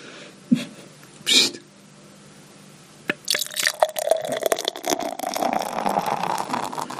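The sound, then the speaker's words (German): Beer is poured into a glass, a steady splashing, gurgling stream for about four seconds whose pitch rises as the glass fills, preceded by a couple of brief clicks. “Also ich muss sagen, so ein schönes Einschenkgeräusch hatten wir schon lange nicht mehr.”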